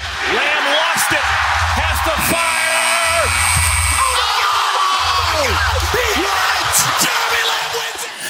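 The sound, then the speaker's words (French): A buzzer blares for about two seconds over a loud, lively crowd, with yells and whoops rising and falling throughout. “Le buzzer du carton retentit.”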